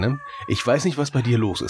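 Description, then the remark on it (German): A dog whines in a thin, high, cat-like tone, drawn out and fairly faint in the background while a person talks over it. “Und jetzt bin ich der Meinung, ich höre eine Katze und muss feststellen, das ist der Hund.”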